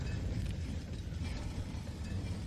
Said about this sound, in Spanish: Se abre lentamente la puerta.